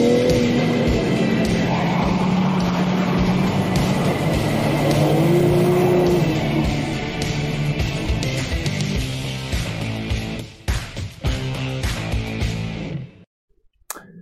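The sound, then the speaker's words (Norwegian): A BMW M3 Competition sports car engine revs hard and continuously while drifting with four-wheel drive switched off, spinning only its rear wheels, pitch rising and falling with throttle, loud, with rough tyre noise underneath before cutting off abruptly near the end. “Da spinner bilen bare på bakhjulene, og de har til og med lagt inn et eget program så du kan følge med på hvor gode drifter du trenger igjen.”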